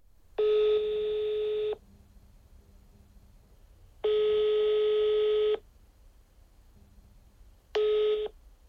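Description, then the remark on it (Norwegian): A telephone ringback tone of a call to a work psychologist sounds in steady, buzzy pulses about a second long, separated by longer silent gaps, heard three times, clear with no one speaking. “Jeg ringer til arbeidspsykolog”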